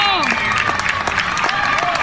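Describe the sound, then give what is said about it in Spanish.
An audience in a club applauds and cheers as the club owner leads the cheering, dense steady clapping mixed with loud whoops and shouts of "bravo", continuous and energetic throughout. “Y el dueño del club saca la porra, güey, por andar diciendo, váyanse a la cocina y todo esto y aplauden todo.”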